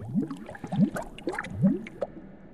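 Bubbles gurgle up through water in a few wet, uneven bursts, each with quick rising pops, close and moderately loud with no voices.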